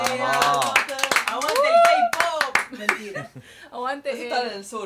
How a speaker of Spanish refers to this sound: Y bueno, y que Corea del Norte se va a revelar. Un aplauso para Corea del Norte.